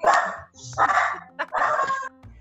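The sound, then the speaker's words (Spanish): A female dog barks three times in quick succession during an interview, fairly loud, each bark a short harsh burst with brief gaps between them. “la perra me está saboteando la entrevista.”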